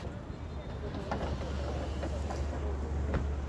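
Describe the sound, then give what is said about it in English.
A number 65 bus pulls up with a heavy, steady low engine rumble and broad road noise, punctuated by a few sharp clanks and hisses over about three seconds. “Right on time. The 65 bus.”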